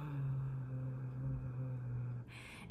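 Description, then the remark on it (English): A single deep, growling Kargyraa throat-singing drone, a low-pitched voice held steadily for about two seconds, fairly loud, before it breaks off into a breathy exhale. “But then you hear my other voice being really, really low, like this.”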